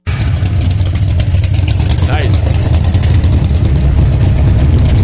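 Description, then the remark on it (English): A drag racing car engine roars loudly and continuously, a deep thundering rumble with a harsh, noisy edge, while a voice briefly speaks over it. “Listen to the thunder.”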